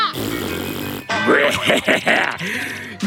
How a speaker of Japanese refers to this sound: なんだってこうなったらおなら攻撃だ